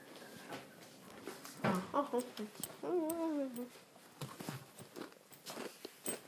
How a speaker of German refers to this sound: Stimmt, ich darf heute noch was Süßes essen. Und zwar ich esse ein Cookie.